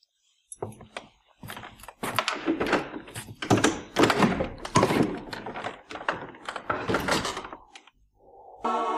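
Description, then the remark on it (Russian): A series of heavy clunks and rattling mechanical clicks, like a key working a stiff lock, followed by a short creaking groan as a door swings open. “Так когда же вы открывали эту дверь в последний раз?”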